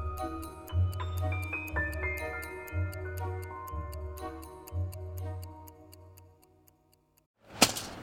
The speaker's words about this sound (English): Hear that? It's the sound of someone whacking the ground with a rake.